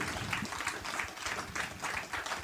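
Audience applause, a dense, steady wash of many hands clapping at once, fairly loud and sustained throughout with no voices standing out.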